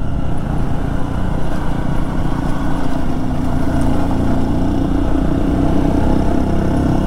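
The engines of two dual-sport motorcycles, a Honda XR150L and a KTM XCF-W 350, drone steadily and loudly while riding a road in the Pisgah Ranger District, a continuous low rumble with slight fluctuations, like riding along at a constant pace with no talking.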